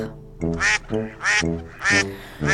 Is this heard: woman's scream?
no